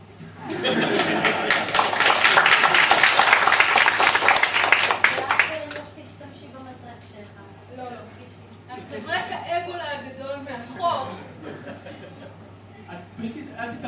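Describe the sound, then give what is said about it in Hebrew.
A live audience at a science talk applauds loudly as the microphone passes to the next speaker, a dense burst of clapping for about six seconds, then it fades into scattered laughter and people talking. “שתמחרו יותר כפיים, יש יותר סיכוי שנאהב אתכם.”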